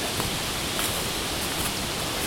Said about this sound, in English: It's actually starting to rain a little bit, and I do have my poncho in my bag